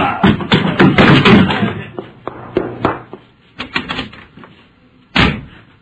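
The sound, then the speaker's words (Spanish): A door is handled and opened, with a cluster of clattering knocks and thuds from the latch and frame, a few scattered taps, then one sharp loud bang near the end. “Abrió la puerta, disimulando ante algunos agentes y otras personas que estaban por ahí.”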